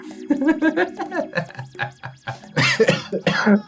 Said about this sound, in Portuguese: mano, tô até tossindo.